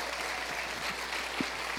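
An audience applauds steadily, a dense, even wash of many hands clapping at once, with faint voices and a few cheers mixed underneath.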